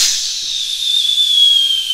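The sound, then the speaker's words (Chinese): A voice imitates an incoming artillery shell, the first shell landing on Kinmen Island in the 23 August 1958 bombardment by Chinese Communist forces massed in Fujian. One sustained, high-pitched whistle starts with a breathy hiss and slowly slides downward in pitch over about two seconds, fairly loud and steady. “接着炮弹就如同雨点般的，嘘嘘嘘嘘，哒哒哒哒哒哒哒的落下来了。”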